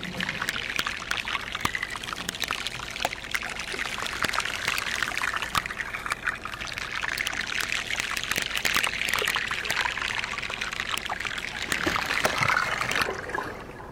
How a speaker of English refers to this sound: So those pops and crackles are the sound of the air exploding out of the glacier ice.